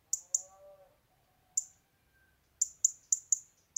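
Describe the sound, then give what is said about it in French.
A European robin gives sharp, high, repetitive tic-tic calls, single and in quick bursts, fairly loud, with a soft brief warble near the start and quiet pauses between. “C'est par exemple le cas avec le rouge-gorge qui lâche des chip-chip ou tic-tic répétitifs.”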